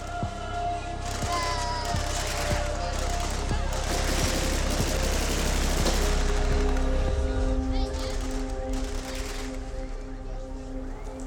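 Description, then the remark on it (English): Rapid bursts of celebratory gunfire crack out repeatedly over a noisy outdoor crowd at Gaddafi's former home compound, now a makeshift fairground with a carnival atmosphere, shots overlapping in irregular volleys for several seconds before thinning out, with voices and a steady hum underneath. “Now his compound had become a makeshift fairground, complete with lots of celebratory gunfire, souvenirs, and a general carnival atmosphere.”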